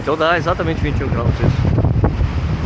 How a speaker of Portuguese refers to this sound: Lá na ponta. Muito vento.